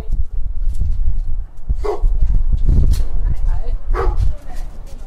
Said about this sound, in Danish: og som du kan høre, så har hun to hunde i huset. Det er mine to lækre store hunde, som fylder meget.